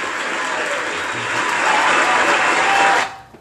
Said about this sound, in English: So, and Frank Gore is now the third all-time leading rusher in NFL history. So that deserves a round of applause.